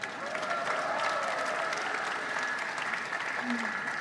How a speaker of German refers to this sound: Bitte einen Applaus für die Gruppe 2.